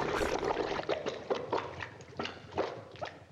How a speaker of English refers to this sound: there was a sigh of relief when the car begins sinking again. Right. And then you hear these grotesque, you know, blah blah blah blah as it goes under the mud.